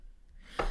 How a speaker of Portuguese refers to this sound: Santinho.